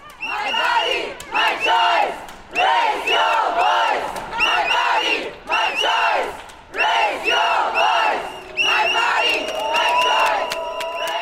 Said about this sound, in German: Auch wenn wir rund 500 Meter weit entfernt vom Marsch gehalten werden und nicht wissen, ob der Lärm, die Trillerpfeifen, die lauten Schläge auf Kochtopfdeckeln und unsere Schreie den schweigenden Marsch auch nur ansatzweise juckt, es fühlt sich gut